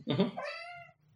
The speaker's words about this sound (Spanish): Eh, eso fue un gato. El gato, el gato del Gaps.